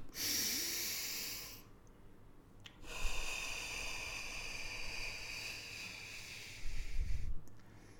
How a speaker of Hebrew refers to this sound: אז תעשו נשימות עמוקות כאלו, כמו שאני עשיתי, תכף נעשה ביחד עוד פעם אחת. ותראו כמה שזה משנה ומוריד סטרס. אז ביחד איתי, קחו נשימה ארוכה ותכניסו הרבה אוויר.